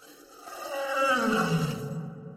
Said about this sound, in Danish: Det er en løve. Løver er nemlig også kattedyr.